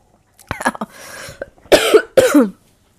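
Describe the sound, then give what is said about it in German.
A person with a dry throat coughs: a brief raspy throat-clearing sound, then two loud, harsh coughs in quick succession, with no talking. “Moment, ich muss einmal husten.”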